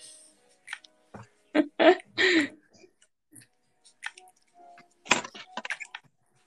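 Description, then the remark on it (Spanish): Wet, squishy chewing sounds, irregular bursts of mouth noise and smacking as someone eats strawberries, with quiet pauses between. “Me estoy comiendo todas las fresas.”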